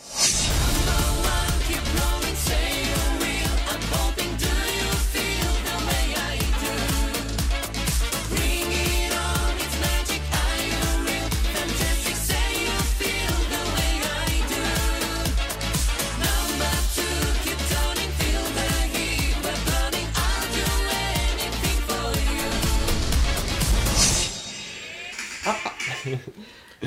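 An upbeat pop song plays loudly and steadily, with a driving beat and full instrumentation for about twenty-four seconds before cutting to a brief, quieter tail.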